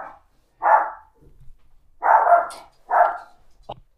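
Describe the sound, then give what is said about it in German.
A dog barks four times in loud, separate bursts spaced across a few seconds, with a brief faint sound after the last bark and no talking. “Ja, ein Hund muss ja auch mal bellen, deswegen habt ihr jetzt auch mal schön das Hundebellen gehört.”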